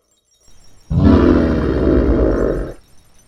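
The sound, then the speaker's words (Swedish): A bear lets out a single deep, loud, harsh roar lasting about two seconds, preceded by a brief low rumble and then cutting off abruptly, with no talking. “Så krockar du nästan med en björn.”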